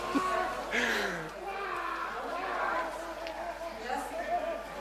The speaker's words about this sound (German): Und wir gehen jetzt mal rüber zu den Schreien. Na, die haben wir jetzt schon die ganze Zeit gehört. Da wird da wird mit einer da wird geschlagen auf die genau. Füße.